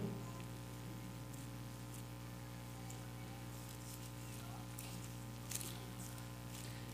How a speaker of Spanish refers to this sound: Ya está lloviendo, ya va a llover.